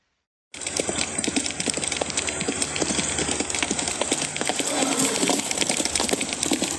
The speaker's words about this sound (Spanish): Ya oyó, tata. Son hartos caballos.